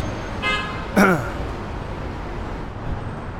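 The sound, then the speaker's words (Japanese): Two short car horn honks in quick succession, the second louder and sharper, over a steady wash of city street traffic noise with faint voices in the background. The setting is southern Manhattan, New York, at about 6:30 on a mid-September Sunday evening, where horns sound constantly. “クラクションが常になっています”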